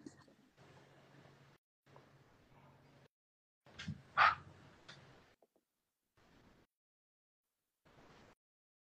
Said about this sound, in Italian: Aspetta che devo aprire la porta ad Aki, il mio cagnolino